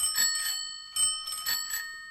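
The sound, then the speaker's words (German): A bicycle bell rings, struck about four times in quick succession, its bright metallic tone lingering and overlapping between strikes. No voices are heard. “Und an jedem sollte eine Klingel dran sein oder eine Hupe. Da gibt es ja ganz verschiedene Modelle, die klingen dann so oder so.”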